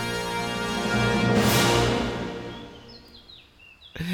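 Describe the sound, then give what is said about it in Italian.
Several short, high, downward-gliding bird chirps appear toward the end, following a sustained low tonal hum and a brief airy whoosh; the chirps are fairly faint and quick. “uccellini finali.”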